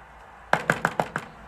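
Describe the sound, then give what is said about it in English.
Five quick knocks on a hotel room door in a scene from a Besson film, evenly spaced sharp wooden raps sounding alone with no one speaking. “Because after she tells the receptionist that they're lovers, they come a knocking, right?”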